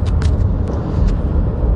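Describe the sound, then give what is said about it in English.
Steady low rumble of a car interior on the move, a constant droning hum with a few faint ticks and clicks on top, no voices. “Now, I'm uh, broadcasting from the other car”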